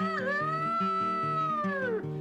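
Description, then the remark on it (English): A voice imitates a cat with one long, drawn-out meow lasting about two seconds, rising then sliding down at the end, over a steady, repeating instrumental accompaniment. “The cat went meow.”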